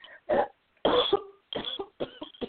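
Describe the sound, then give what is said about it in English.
Four heavy, wet coughs from a person with a bullet wound in the lung, spraying blood, burst out in an uneven rhythm, each a loud, rough blast with a rasping, congested tail and brief gaps between them. “Big coughs, spraying blood”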